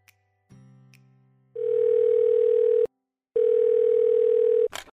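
A phone call being placed: a short series of low dial tones, then two long, loud steady ringback tones separated by a brief silence, ending with a click as the line connects.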